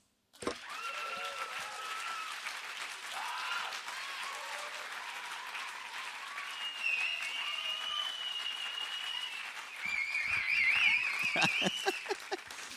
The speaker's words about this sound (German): und jetzt geben wir Gott Applaus für das.